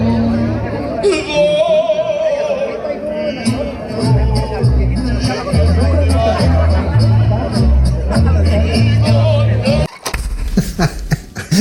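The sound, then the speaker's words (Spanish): A small crowd at a political rally in support of Noroña in Tepic murmurs in overlapping, indistinct voices, a steady hubbub of chatter with a low rumble underneath, briefly dipping before a few sharper sounds near the end. “este maravilloso y concurrido Meeting, de apoyo a Changoleón Noroña en Tepic.”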